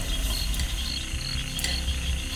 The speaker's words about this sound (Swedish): Dockan tickar.